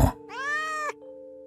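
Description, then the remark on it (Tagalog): A single drawn-out cat meow, clear, rising then falling in pitch over most of a second, with a steady low hum continuing underneath and no talking. “Bigla kong itinaboy ang pusa at sinabihang wag nang babalik.”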